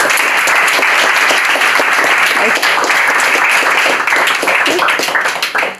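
An audience applauds warmly and steadily, a dense wash of many hands clapping at full volume for several seconds before it starts to taper off at the very end.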